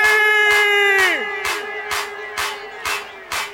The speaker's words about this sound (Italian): Vorrei ringraziare un amico, un grande uomo, vorrei sentire l'applauso per